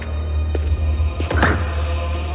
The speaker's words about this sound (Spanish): Se acerca a una de las celdas y descorre el ventanuco que tiene en la puerta.